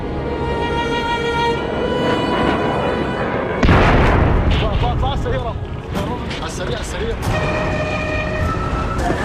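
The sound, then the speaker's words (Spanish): Heavy booms of artillery fire erupt amid a chaotic wartime soundscape in Aleppo, Syria, with wailing siren-like tones and voices and shouting running underneath throughout. “Sí, Alepo, este es el sonido de Alepo.”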